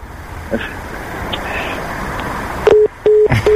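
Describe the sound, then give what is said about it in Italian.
A hissy phone line goes quiet after the other party hangs up, then a telephone busy tone starts: steady, low beeps pulsing on and off in a regular rhythm, clear. “Ah, ha chiuso il telefono.”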